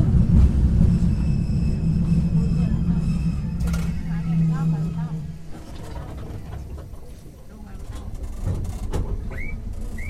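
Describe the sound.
A Keifuku Electric Railroad Mobo 101 type tram running along its line from Arashiyama toward Katabiranotsuji, heard from inside: a steady low rumble and motor hum that eases off midway, then builds again, with faint muffled voices in the background.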